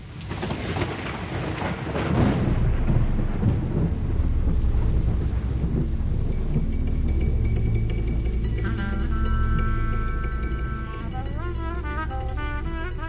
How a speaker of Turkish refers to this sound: Yağmur yağıyor.